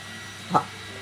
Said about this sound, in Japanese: ドライヤーが始まっちゃったから今日はこの辺にしますか